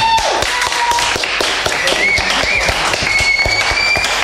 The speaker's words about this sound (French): Voilà. Tu peux rejoindre la scène. On applaudit